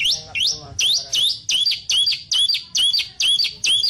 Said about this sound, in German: Der wunderschöne Vogel. Aber eigentlich ist es auch so ein kleines Sehnsuchtsobjekt äh, fürs Wegkommen. Denn er sieht einfach total toll aus und kann seine weiße Haube auf dem Kopf auch zu einer echt zerzausten Punkfrisur aufrichten.